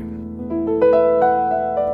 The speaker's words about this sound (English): To calm proceedings down, here's the sound of a piano.